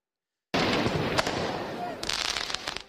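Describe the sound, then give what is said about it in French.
Firework mortar shots crack through a loud, chaotic crowd din during urban violence at Place Bellecour in Lyon after the France team's defeat, with projectiles thrown at police. Sharp bursts early on and a rapid cluster of bangs near the end, amid shouting and commotion. “Des tirs de mortier, des jets de projectiles sur les forces de l'ordre.”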